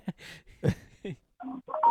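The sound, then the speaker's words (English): A mobile phone rings with a short run of bright electronic tones that step up in pitch, clear, following a few brief murmured voice sounds. “phone's ringing.”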